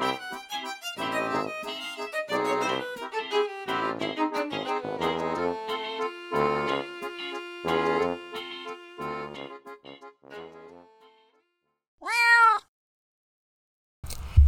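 A single clear, drawn-out cat meow rings out near the end, following several seconds of melodic music that fades away, then a short gap of silence before it.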